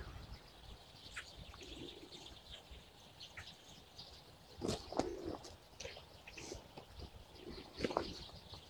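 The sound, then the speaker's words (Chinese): A dense chorus of about a hundred sparrows in a tree in winter, chirping all at once: countless overlapping short high tweets forming a continuous busy chatter, with a few louder bursts standing out; no talking. “对我，我面前差不多有上百只的麻雀，”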